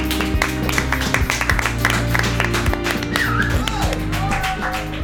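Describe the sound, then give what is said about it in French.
A live audience at a public recording applauds with a steady patter of many hands clapping, moderately loud throughout, while sustained musical chords and a few sliding tones continue underneath. “On applaudit, s'il vous plaît, le public.”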